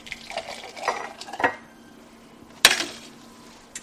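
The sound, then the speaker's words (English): Frothy steamed milk from an espresso machine is poured, splashing into a glass for a soy latte in a home in the bayou, with clinks of glass and dishware, including a sharp, bright clink near the end, over a faint steady hum. “Inside the Ellender home, Teresa Marie switches on an espresso machine and pours frothy steamed milk into a glass.”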